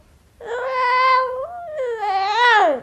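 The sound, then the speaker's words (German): A cat gives a long, drawn-out meow that dips and rises again into a second wailing call, loud with nothing else around it. “Und da ist es Büsi, die Katze. Wie macht die Katze? Miau.”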